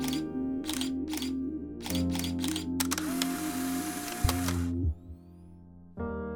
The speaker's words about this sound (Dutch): Een goed voorbeeld is de Super 8-camera. Niet alleen de filmpjes uit de jaren 70 videocamera zijn historie geworden, maar ook het ratelende geluid dat die camera maakt